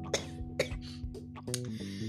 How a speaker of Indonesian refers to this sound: Aduh, batuk.